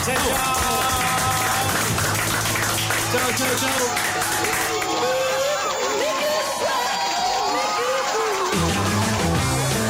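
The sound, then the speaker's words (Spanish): Steady applause fills the whole stretch at the end of the Radio Caos show, mixed with whoops, cheers and overlapping voices, loud and continuous without a break from start to finish. “Aplaudimos.”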